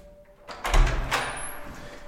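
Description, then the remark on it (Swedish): An apartment door in a stairwell is opened by a man in his forties, with a couple of dull thumps and a rattling latch in quick succession, moderately loud against a quiet, slightly echoing background. “Efter några minuters frågande ringer vi på ytterligare en dörr i trapphuset.”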